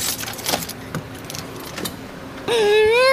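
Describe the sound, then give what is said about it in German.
A small key jangles and clicks in a lock for a couple of seconds, clear, then a door swings open with a loud, drawn-out creaking squeal. “Das war die Tür.”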